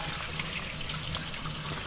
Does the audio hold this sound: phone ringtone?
no